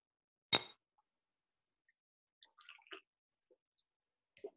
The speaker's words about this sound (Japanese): はい、じゃあ、いきますよ。せーの。乾杯。